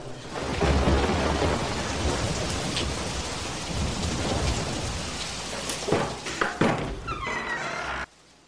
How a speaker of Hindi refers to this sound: गुरुदेव क्या आप जल ला पाए इतनी भीषण वर्षा हो रही है